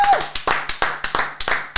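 Brief applause: roughly a dozen quick, sharp hand claps in an uneven rhythm, fairly loud, like just a few people clapping, with a short faint whistle-like tone at the very start.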